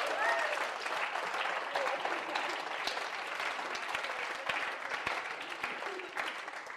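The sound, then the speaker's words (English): An audience claps for God steadily for several seconds, a dense wash of many hands with scattered sharp claps standing out, fairly loud and even throughout, with a few brief voices mixed in at the start. “Let's give God a big clap him while we're there, okay?”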